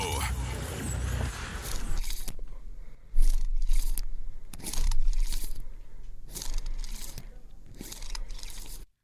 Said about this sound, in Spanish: Es la jamaica deshidratada que se está comiendo